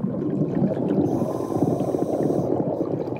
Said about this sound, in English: Hollywood movies like to portray underwater sounds like this.